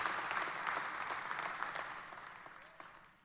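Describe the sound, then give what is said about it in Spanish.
An audience at a church service claps together for God in a steady wash of applause, dense and continuous, gradually tapering off toward the end with no voices over it. “Y denle un aplauso, por supuesto, al nuestro Dios que nos permite estar ocupado en su obra.”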